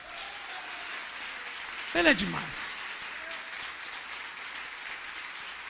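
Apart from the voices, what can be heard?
audience applauding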